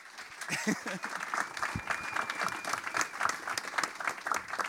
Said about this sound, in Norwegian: Bare kom! Stor applaus!